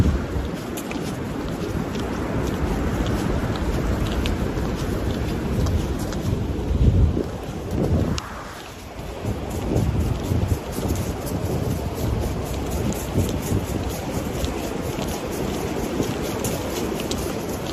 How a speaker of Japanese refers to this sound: 霜の上を歩く音と川の音が聞こえるんじゃないかな。